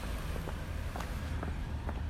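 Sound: footsteps walking outdoors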